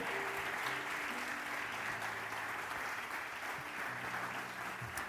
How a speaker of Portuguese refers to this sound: Aplauda o Senhor, Ele é bom. Aleluia.